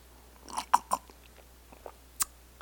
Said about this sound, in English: So let me just take a sip of my tea.